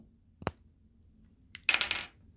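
A sharp plastic tick as a pink marker is opened, then a moment later its small cap is dropped onto a table and clatters through a quick burst of bright, bouncing clicks before settling. No talking.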